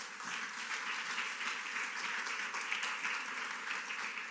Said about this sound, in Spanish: Denle un aplauso fuerte al Rey de la Gloria.